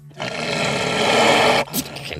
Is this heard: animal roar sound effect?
yes